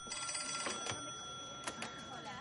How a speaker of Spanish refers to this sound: Descuelga un teléfono.